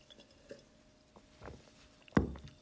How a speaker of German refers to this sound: Okay, das Wasser, das Wasser war schon geil. Das wirklich. Erstmal wieder einen Schluck nehmen.